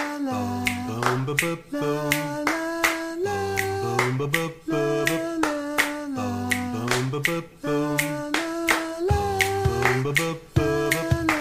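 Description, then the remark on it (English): In an audience sing-along, kids clap and grown-ups add finger snaps, making a steady groove of sharp snaps and claps that repeats in a regular rhythm over a sustained, melodic musical backing, with no talking. “Now, grown ups, you're going to add a snap.”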